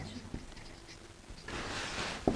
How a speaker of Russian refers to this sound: Я напишу на доске, чтобы у нас были эти ключевые слова, и можем, пожалуйста, высказываться.